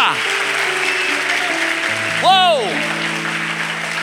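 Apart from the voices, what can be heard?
audience applauding loudly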